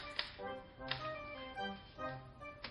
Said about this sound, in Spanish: una secretaria de poco más de 20 años, escribe en la máquina.